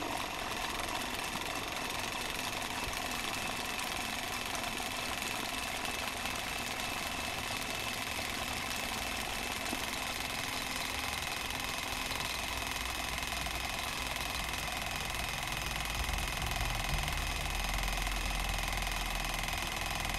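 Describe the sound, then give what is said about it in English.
A razor cleaning station runs its cleaning cycle with the razor inserted blade down, its small electric pump motor humming steadily and continuously with a faint mechanical buzz and rattle as water is pulled into the razor. “You can kind of hear the water getting pulled into the razor, and it's doing its thing.”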